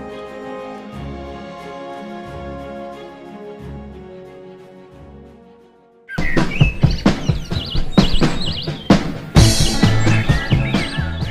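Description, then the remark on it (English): Soft sustained music plays for several seconds, then gives way to a lively outdoor chorus of birds singing during a bird-watching outing, with bright chirps and trills, fairly loud. “We'll get that yellow warbler to pop out.”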